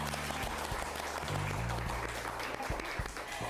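A crowd claps in lively applause to welcome a guest, a dense, steady patter of many hands sustained for a few seconds at even loudness, with a low droning hum underneath.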